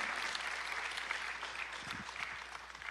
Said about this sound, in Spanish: Alguien tiene que aplaudir más fuerte al Señor.